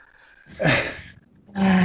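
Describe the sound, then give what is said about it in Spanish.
A female dog lets out two loud, rough growling barks, separated by a short pause, the second cut off at the end. “No sé, no, sé qué, hacer, si decirle a Preco baje la perra o la perra que baje a Preco.”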